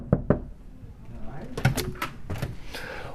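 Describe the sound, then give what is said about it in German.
Two quick, fairly loud knocks on a red door to the boss's office, then the rattle and clunk of the door being opened, with faint voices in the background. “Hinter dieser roten Tür, vor der ich gerade stehe, da hat der Chef sein Büro.”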